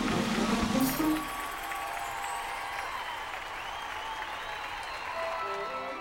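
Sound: crowd applauding and cheering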